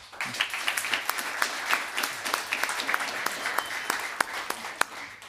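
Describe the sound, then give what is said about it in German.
An audience bursts into applause to choose who wins a bag, this round of applause being for Terry Halliburton: many hands clapping in a dense, steady wash with a few sharp individual claps standing out, sustained for several seconds without any talking. “Einmal bitte den Applaus für Terry Halliburton.”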